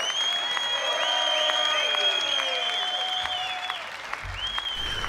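Sustained applause from a live audience after a winning band's live performance, dense clapping that holds steady throughout, with sustained tones and shimmering sounds layered over the crowd.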